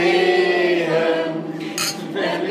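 A lively crowd of cheerful people sings together in a busy forest hut in the Palatinate Forest, Germany, voices blending into a steady chorus, with bright clinks of huge glasses of grape juice and wine spritzers ringing out near the end.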